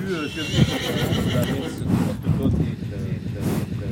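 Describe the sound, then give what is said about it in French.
A horse neighs and whinnies, with shaky harmonic calls rising and falling over about four seconds, joined by soft breathy snorts and a faint clip-clop of hooves. “Les chevaux, ils ont, sont un peu comme nous.”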